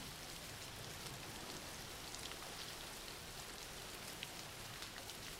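Steady rain falls without pause, a dense, even hiss spread across the whole range, with tiny scattered droplet ticks and no voices.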